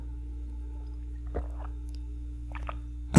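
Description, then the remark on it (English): Soft mouth sounds of someone sipping and swallowing water, a few wet gulps spaced apart over a low steady hum, ending with a louder clunk. “one second, I need to take a drink of water.”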